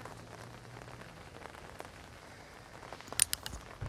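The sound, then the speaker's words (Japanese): Steady rain patters on an umbrella, a dense hiss of drops with scattered sharper taps and a brief cluster of louder hits near the end; no one speaks. The person holding the umbrella is filming with a phone that is getting soaked. “今もうだって雨で傘差しながらで首からエクスペリエンス上げながらそこで撮りながら携帯はびしゃ濡れになりながらっていう状態だよ”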